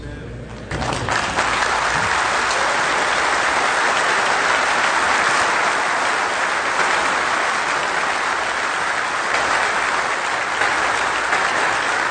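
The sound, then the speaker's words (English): A crowd breaks into sustained applause for the speaker, loud and steady after a brief quieter start, with many hands clapping in a dense, continuous wash for over ten seconds. “Now, I'm not used to being clapped.”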